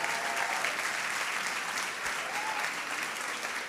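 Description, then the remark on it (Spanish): A crowd at a party applauds steadily, a dense, even wash of many hands clapping at a constant, fairly loud level for the whole stretch, with no voices standing out. “Sí, aplaudí, es un fiestón, viejo.”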